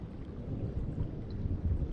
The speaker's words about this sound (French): un instant de paix et de tranquillité avant que l'orage éclate avec puissance et avec sa force destructive en nettoyant comme il le fait.